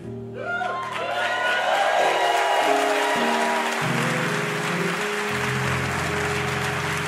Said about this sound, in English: We gotta practice this. Three claps. You can do this. Ready? They deserve three claps. Ready? One, two, three. Now that's good.